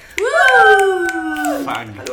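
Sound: finger snapping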